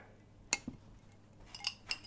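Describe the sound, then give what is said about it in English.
A few small glassy clinks, fairly quiet, as maraschino cherries drop one at a time into stemless white wine glasses, one cherry in each glass; one clear tap, then two more in quick succession, with no talking. “All right, so we're doing one cherry in each glass.”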